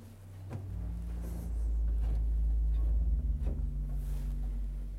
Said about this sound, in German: Dieser Untersatz ist als 32 Fuß im Pedal spielbar. Das, was ich hier mit den Füßen betätige, sind die Bassstimmen der Orgel. Hören wir mal den Untersatz 32 Fuß.